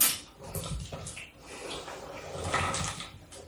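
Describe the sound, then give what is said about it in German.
Chocolate cubes poured into a bowl to be added to cookie dough, producing a steady rattling clatter of many small pieces tumbling over each other for a few seconds, with no voices. “Das klingt so, als ma nee, machen wir da tausend von von Würfeln rein.”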